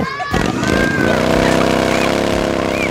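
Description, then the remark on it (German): A loud, hot engine roars, its pitch climbing as it revs and then holding a steady, droning whine for a few seconds, with faint crowd-like noise underneath, in the Entdeckerviertel region of Upper Austria, Austria. “Und jetzt nehmen wir euch mit in diese Welt voller Kinderlachen, heißer Motoren, großer Moore, viel Musik, Burgen und Wasserspaß.”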